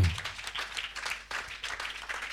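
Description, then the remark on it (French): A church audience applauding together after a call to acclaim the Lord, a dense, steady patter of many hands clapping at once with a brief low thump at the very start and no voices over it. “Ça, c'est pas acclamation. C'est applaudissements.”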